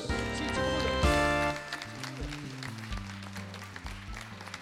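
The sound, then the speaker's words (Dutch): An audience at the Cambreur College in Dongen claps to welcome the presenters of an election debate, over upbeat music with stepping tonal notes; the applause forms a dense, crackling wash that stays fairly loud, easing slightly toward the end. “En mag een hartelijk welkom en applaus voor uw presentatoren”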